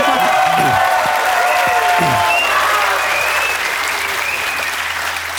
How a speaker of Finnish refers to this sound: Taputetaan vielä, koska live-yleisö on paikalla, niin vieraille Ja ne oli ne suomalaiset taputukset,